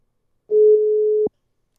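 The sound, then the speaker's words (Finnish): A single steady tone from an iPhone keypad while dialing a number sounds once, a clear mid-pitched electronic beep lasting just under a second before cutting off sharply, with no talking around it. “iPhone näppäimistä ja se piip, piip, 0407”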